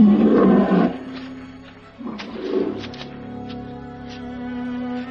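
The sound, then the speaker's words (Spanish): A sheepdog in the countryside growls in two deep, rumbling bursts, the first longer and louder, the second shorter after a brief pause, followed by a low steady drone. “Sí, es un perro pastor o algo así.”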